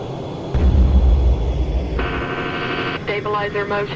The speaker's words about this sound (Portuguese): Enquanto os pilotos ainda tentam liberar o estabilizador, ouve-se o som de uma batida surda.